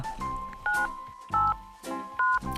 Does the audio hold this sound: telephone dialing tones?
yes